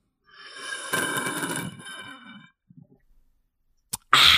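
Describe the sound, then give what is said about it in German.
An airy slurp of alcohol-free Radler beer from a bottle lasts about two seconds, followed by a few faint gulping sounds, a sharp click and a brief loud rush at the end. “Doch, mein Schlürfen.”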